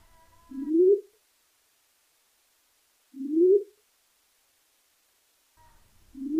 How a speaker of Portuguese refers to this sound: E aí a gente vai ouvir agora esse som inédito da Pararu Espelho. É algo muito, muito raro mesmo.